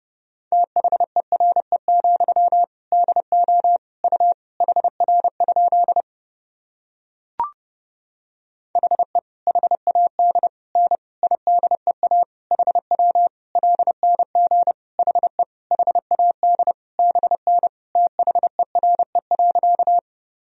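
Morse code sent at a brisk 30 words per minute: a clear, steady single-pitched tone keyed in rapid dots and dashes, pausing briefly midway with a faint click before the fast beeping resumes.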